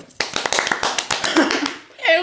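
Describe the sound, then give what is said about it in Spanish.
A short round of applause: brisk, slightly irregular hand claps rattle along for under two seconds, then give way to a brief voiced sound at the end. “Un aplauso, por favor”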